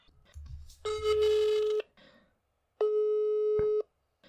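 A telephone ringing tone sounds twice, each steady electronic burst lasting about a second with a pause between, clear, after a brief low rumble at the start, as a call is placed over a phone line.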